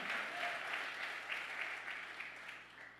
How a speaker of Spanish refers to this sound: Dele un aplauso fuerte al Rey.